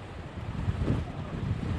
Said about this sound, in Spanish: Sorry about that. Wow, that was a heck of a gust.